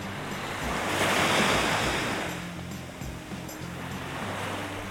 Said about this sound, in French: Et pourtant, attablé donc au soleil face à la mer, j'écoute le bruit des vagues.